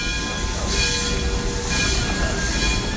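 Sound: train on rails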